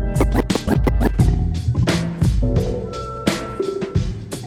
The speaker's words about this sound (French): On a réalisé que le, scratch venait de ce morceau et là on était fini, c'était fini pour nous, on était dedans au taquet.